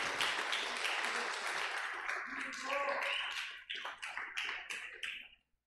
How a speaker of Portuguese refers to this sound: Nós temos que honrar uma amizade dessa, um carinho desse. Quem concorda comigo? Mais uma salva de palmas para o Daniel.